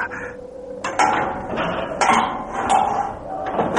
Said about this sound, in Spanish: Esta llave no sirve. Eh, probaré con esta otra. ¿Qué ocurre? No se abre, maldita sea. Mm. Ahora.